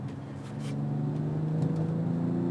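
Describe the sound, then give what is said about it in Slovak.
A car engine drones steadily while driving, a deep harmonic hum that swells slightly louder and fuller partway through, with no voices over it; in the selected driving mode the engine sound becomes more pronounced and denser, and is somewhat artificially enhanced. “Vol- Na volante to cítiť, na podvozku to cítiť, na reakciách prevodovky to cítiť, aj na dokonca zvuk sa mi zdá, že trošku sa zmenil, je taký výraznejší, hutnejší.”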